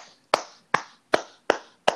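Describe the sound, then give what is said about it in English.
Five sharp hand claps into a microphone at a steady, unhurried pace, each with a short ringing tail and no voices in between. “that, but I'm clapping for you through my mic.”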